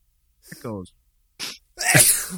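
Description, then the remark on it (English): A loud sneeze right up against the microphone: a voiced, rising 'ah' intake, a short breathy catch, then an explosive, sputtering burst that hits the mic hard. “just this like booger arm just came out and slapped the mic.”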